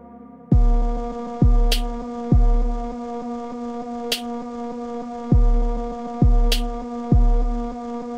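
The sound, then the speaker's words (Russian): A machine-generated beatbox beat from a neural network that imitates a human beatboxer, repeating a note sung to it and completing it with a beat: deep, punchy kick thumps in a steady repeating pattern, with a few sharp snappy hits, all over a sustained droning tone. Loud, with no voices. “и достраивает битом.”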